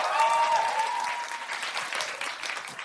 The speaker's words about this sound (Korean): 노래 해드릴까요? 네. 자, 박수 한번 주세요.